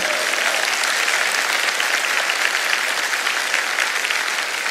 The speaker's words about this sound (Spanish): De un aplauso como que lo está creyendo.